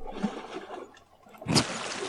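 Gentle water sloshes and laps in a soft, continuous wash, with a brief louder splash about two-thirds through, part of an ambient relaxation track set at a lighthouse, with no voices.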